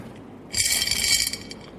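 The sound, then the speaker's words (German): About 260 small balls clink and rattle together inside a glass jar, a bright burst of jangling lasting under a second before a few scattered clicks fade out. No voices. “Dann sieht es in diesem Glas noch so aus, dann sind es noch 260 Kugeln.”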